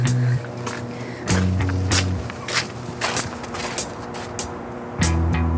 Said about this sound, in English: i'm standing on this catwalk outside of uh, Hawkins Point on the St. Lawrence River. And that buzzing in the background that you can hear is the Moses Saunders Dam, which was built in 1958, joint project between the two countries,